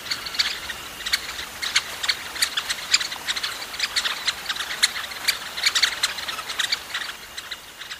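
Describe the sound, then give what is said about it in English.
Bright, short chip contact calls from many yellow-faced honeyeaters flying through on autumn migration overlap in a busy, irregular stream, continuing throughout with no talking. “the way they just move through in these massive waves, so many of them, and they have a little contact call, which it, it's such a cheerful little call. As they fly, they all kind of go chip, chip, chip, chip.”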